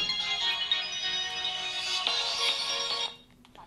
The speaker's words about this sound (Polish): Ja może wyłączę telefon, żeby nam tutaj w podcaście nie przeszkadzał.